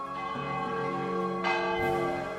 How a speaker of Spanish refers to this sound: No había ninguna iglesia en la ciudad, por muy desesperada que estuviera por adeptos, que hiciera sonar una campana para llamar a los fieles a semejante hora. No, el sonido venía de algún lugar mucho más distante.